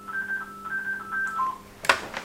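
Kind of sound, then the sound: signal or alarm, telephone ringing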